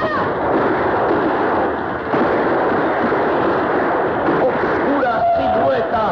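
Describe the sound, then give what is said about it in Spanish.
Continuous rapid gunfire from two silver pistols crackles in dense overlapping bursts, loud and sustained throughout, with shouting voices mixed in and a brief whistling tone near the end. “Y el charro vengador, asomándose por encima de la piedra, empieza a lanzar el irresistible fuego de sus dos pistolas plateadas.”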